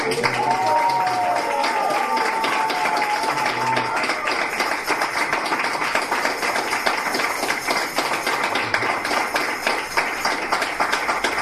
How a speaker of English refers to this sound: So I want you to help me this time. I want you to really, really dig deep and give a rousing round of applause. Hare Krishna, welcome back home.